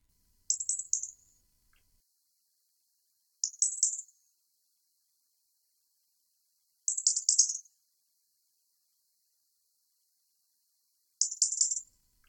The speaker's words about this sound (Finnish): punarinnan ritinä kuusikosta.